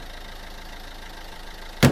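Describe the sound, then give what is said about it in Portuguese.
A ride-hailing app car's engine idles with a steady, low, throbbing rumble for about two seconds, alone, cut off by a brief loud burst of noise at the very end. “Chamou ali um carro de aplicativo e eles foram para casa”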